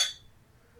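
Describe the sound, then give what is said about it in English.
A single bright clink of glasses touching in a toast, quick, with a short ringing tail that fades into quiet background tone. “So cheers, man, to this. Cheers.”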